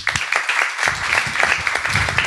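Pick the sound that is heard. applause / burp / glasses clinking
applause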